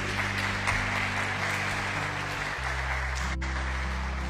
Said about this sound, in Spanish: ¿Y cuántos le dan un aplauso al Señor por eso?